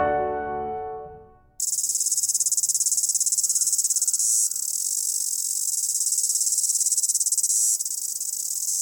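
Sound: insect chirping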